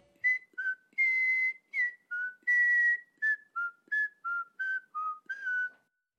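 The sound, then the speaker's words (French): A person whistles the short, bouncy violin riff of a 1997 song, a melody with quick notes stepping up and down in a repeating pattern for about six seconds, no talking. “Euh, même ma mère, elle sifflotait tout le temps le petit riff de violon.”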